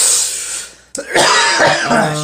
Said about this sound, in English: Shit. I'm coughing. I'm dying.